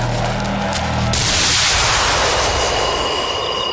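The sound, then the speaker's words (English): A loud roar of military Air Force jet aircraft passing overhead above the mountains, the engine noise swelling into a broad rushing whoosh after about a second and staying strong to the end. “Look, over the mountains. Yeah, the good old Air Force.”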